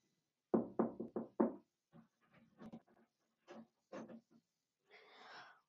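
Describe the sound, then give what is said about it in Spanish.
Four quick, firm knocks on a door in a steady rhythm, loud, followed by softer scattered rustles and a brief breathy hiss. “Tocó la puerta de nuevo.”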